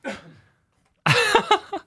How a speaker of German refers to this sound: Was denn? Musst du kurz husten.